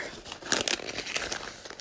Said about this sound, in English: So we'll just crumple that up because I have no use for it. And I threw it away.